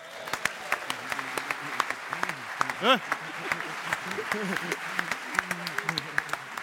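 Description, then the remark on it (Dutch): A show audience claps steadily and enthusiastically to welcome a friend of the show being called on, a dense patter of many hands, while a few voices talk and call out briefly over the applause. “Groot applaus, daar”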